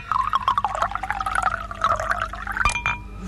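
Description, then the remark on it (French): A preparation called taureau de bœuf pours steadily into a bottle, a gurgling, splashing stream whose tone rises gradually as the bottle fills, with a few brief glugs near the end. “Je le verse dans la bouteille.”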